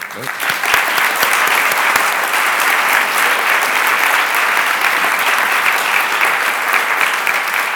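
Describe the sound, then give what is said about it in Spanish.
Sustained audience applause, a dense steady wash of many hands clapping at even loudness for several seconds, with no voices standing out. “Te, quiero decir que desde este periodista, todo el público que está aquí hoy acompañándonos, pues queremos con este aplauso que eso suceda la próxima semana y que seas académico de la pues Real.”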